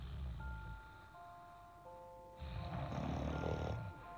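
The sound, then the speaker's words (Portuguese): Two loud, rumbling snores from a grandmother in a cozy bed, one short and one longer, over soft, sustained musical tones, with a quiet pause between them. “Em cima desse menino tinha um cachorro, um cachorro cochilando, em cima de um menino sonhando em cima de uma avó roncando, numa cama aconchegante, numa casa sonolenta onde todos viviam dormindo.”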